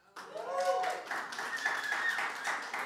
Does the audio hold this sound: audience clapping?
yes